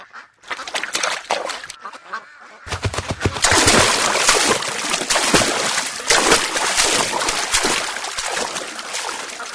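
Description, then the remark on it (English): A big, loud splash as someone plunges into water to go swimming, followed by several seconds of continuous churning and sloshing, with no one talking. “you sure make a big entrance. I love swimming in the water.”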